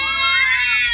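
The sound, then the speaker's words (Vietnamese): A startled cat outside in the night lets out a single loud, shrill screeching meow, sustained and harmonic with a slight rise in pitch, with no talking. “Tiếng mèo kêu ré lên vì bị đánh động Kèm theo đó là tiếng song nồi loảng xoảng Không hiểu con mèo nhà nào gần đây Có vẻ như quen mùi nên nó hay lẻn sang”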